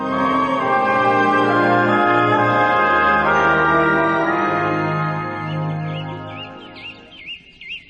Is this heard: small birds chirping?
yes